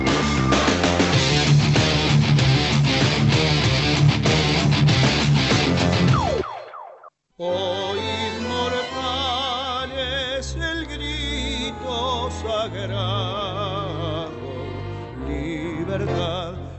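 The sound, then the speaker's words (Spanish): The Argentine national anthem, sung by a singer, plays on Marca en Zona Radio 94.7 in Argentina as loud, full orchestral music. It cuts off briefly about six seconds in, then resumes with a wavering, vibrato-rich melody over steady accompaniment. “Aquí en Marca en Zona Radio suena el himno con ….”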